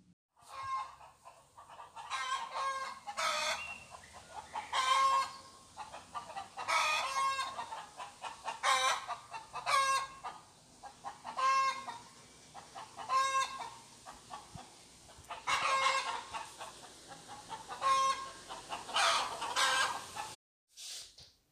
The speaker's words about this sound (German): Alles fängt früh morgens an, wenn die Sonne scheint. Dann wachen die Hühner auf und sie gackern erstmal sehr, sehr laut. So hört sich das an.